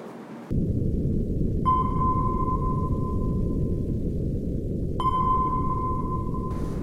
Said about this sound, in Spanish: Eso es un sonar. Es una tecnología que utilizan para determinar por medio del sonido la presencia, localización o naturaleza de objetos en el mar. Cuando hay algo cerca, el sonido rebota,